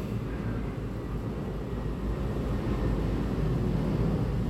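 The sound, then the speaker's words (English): A steady low rumble of an airplane passing overhead, a broad droning roar that holds fairly constant and swells slightly toward the end, with no voices present. “And here's another airplane.”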